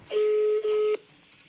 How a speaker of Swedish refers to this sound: Vi ringer Mia Thomsson ifrån Unconnected